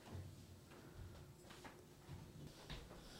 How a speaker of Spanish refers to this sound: Ire, viejo, abra esa puerta.